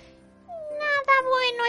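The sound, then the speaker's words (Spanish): A single drawn-out, plaintive cat meow that wavers and slowly falls in pitch, fairly loud, lasting over a second with no other sounds around it. “maulló desdichado.”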